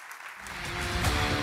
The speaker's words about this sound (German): Lass uns Applaus geben. Nico McDermott und stage.